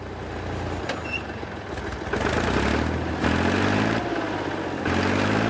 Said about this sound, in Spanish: Mira hacia atrás, está arando. El tractor queda atorado.